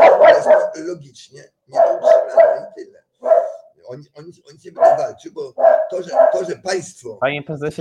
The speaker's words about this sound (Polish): słabo pana słychać, ponieważ pies zaczął szczekać w tle.